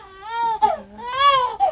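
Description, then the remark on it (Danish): A newborn baby cries in two drawn-out, wavering wails separated by a quick gasping breath, loud and clear with no one talking over it. “Og, øh, det altså, jeg synes, det kan ikke være bedre øh, til et nytårsprogram, at man har en lille nyfødt baby med.”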